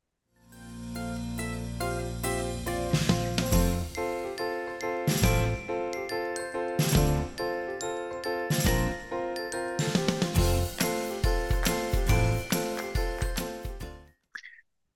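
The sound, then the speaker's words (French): A short, bright opening theme jingle plays on its own for about fourteen seconds, with tinkling bell-like tones over a steady bass and punchy rhythmic hits, then stops abruptly. “je vous propose de me retrouver tout de suite après ce cours générique, le temps de vous abonner à notre chaîne YouTube ou à notre podcast en fonction de là où vous nous écoutez.”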